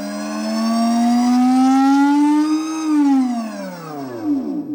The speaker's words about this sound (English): That is the sound of an electric motorcycle made by Tarform. It's sleek, matte black, the kind of ride Batman would look right at home on.